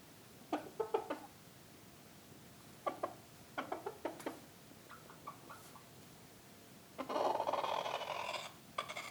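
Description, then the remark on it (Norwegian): La Flèche chickens, a breed with horns on the forehead, cluck in short, quick bursts of three or four notes, repeated several times, followed by a longer, harsh, noisy squawk near the end. No one speaks. “Det er uh, De har horn i panna. uh, kalles djevelens høns, eller djevelsk høns.”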